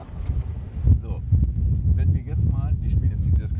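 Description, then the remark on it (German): Steady outdoor wind gusts rumble and buffet the microphone throughout, a low continuous roar, with faint voices talking over it in the background. “So, jetzt äh, frischt es ein wenig auf vom Wind her.”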